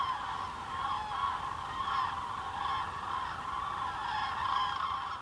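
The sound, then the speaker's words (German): A large flock of cranes on the Darß-Zingst peninsula on the Baltic Sea coast of Germany calls continuously, a dense chorus of overlapping honking and trumpeting cries at steady volume. “wo bist du genau gewesen und wie viele Kraniche hast du gesehen? Das hört sich sehr danach an.”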